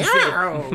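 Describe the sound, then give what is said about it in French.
A loud, strained vocal cry imitating the screech of an ocelot, a wild cat, rising and falling over less than a second, harsh and loud enough to overload the microphone. “mon Dieu, le, le micro est on est désolé pour vos oreilles.”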